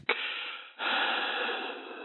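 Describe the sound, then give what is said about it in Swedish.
A person imitates an unknown caller's heavy, rasping breathing on a phone call: two long, loud breaths, the first short and the second drawn out, with a thin, band-limited quality like sound coming over a phone line. “Man hör lite tunga andetag så här.”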